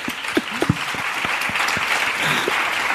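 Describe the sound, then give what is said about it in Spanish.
A crowd claps steadily for about three seconds, a dense, even wash of many hands with a few sharper individual claps standing out near the start. No one speaks over it. “podéis aplaudir, ¿eh?”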